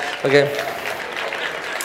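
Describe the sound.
An audience applauds a man brought up to the front as a model, in a steady, dense patter of clapping that holds for a couple of seconds, with a short voiced shout or cheer rising over it near the start.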